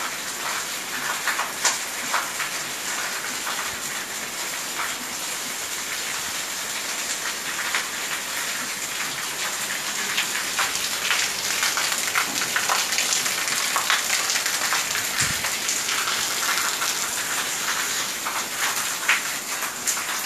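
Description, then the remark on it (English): Steady rain pours down at a house in Portugal in a dense, continuous hiss, with scattered sharper patters of drops striking surfaces. It stays fairly loud and even throughout, with no voices. “i hope you all are enjoying this sound just hear it with headphones full sound maximum level of sound hear it with it I'm standing here dancing with rain in Portugal of my house.”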